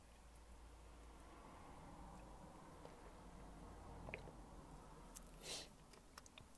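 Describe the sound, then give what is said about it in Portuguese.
Steady low background noise, then a short, soft slurping sip of water toward the end, followed by a few faint small clicks. “Vamos só ver um bocadinho de água.”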